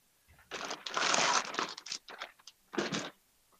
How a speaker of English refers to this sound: I'm getting a lot of crackle from that bag.